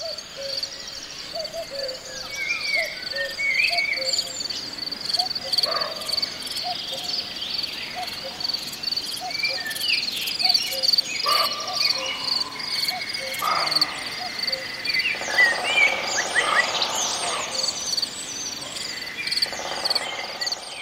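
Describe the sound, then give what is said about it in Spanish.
Forest ambience in Aralar, between Navarra and Guipúzcoa, Spain, with two cuckoos calling, one distant and one nearer, a woodpecker tapping, and a blackbird singing over a steady high insect-like hum, no voices. “Pues cantan dos cucos, uno lejos y otro más cerca, a un pájaro carpintero, se escucha un mirlo”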